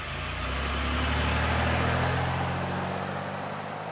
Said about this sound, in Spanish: El auto desplaza por la carretera.